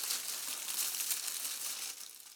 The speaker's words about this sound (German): Es wurstelte in den Blättern